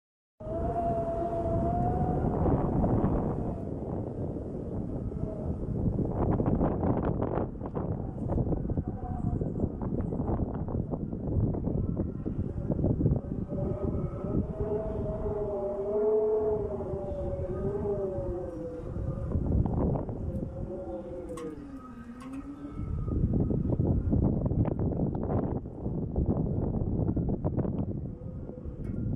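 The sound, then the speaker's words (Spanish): Strong wind on a very windy day roars steadily through a window gap of a window facing the cemetery (panteón), its rushing gusts carrying an eerie, wavering whistle that slides up and down in pitch like a moan. No one speaks. “Y es que hacía mucho viento ese día, y el sonido que entraba por la ventana, que da justo hacia el panteón, provocaba un sonido bastante peculiar.”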